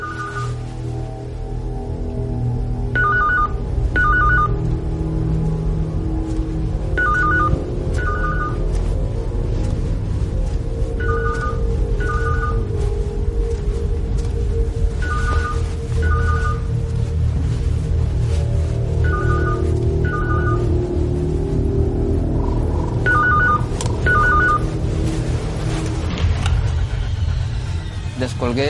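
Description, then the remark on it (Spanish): A telephone rings at about half past three or four in the morning, in a repeated double-burst pattern, about seven cycles every few seconds, over a steady low rumble like an idling engine. “de las tres y media o cuatro de la mañana, suena el teléfono y yo siempre lo digo, ¿no?”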